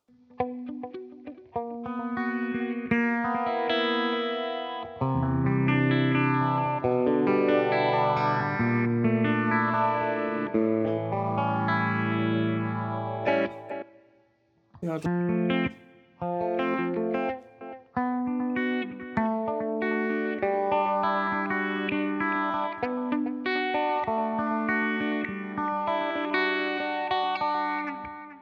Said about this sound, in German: ja jetzt den, wie gesagt, den, den ähm, Kompressor an, den Phaser und den Hall. Ja, dann könnte man jetzt natürlich das nochmal irgendwie mit ein bisschen Delay hier. Also ich glaube, das ist noch ein bisschen extrem eingestellt. Nee, gar nicht mal.